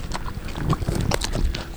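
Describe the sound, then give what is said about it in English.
Wet chewing and crunching as a dog works through food, with irregular bites and smacking sounds repeating quickly over a low background rumble. “That is not a human chewing.”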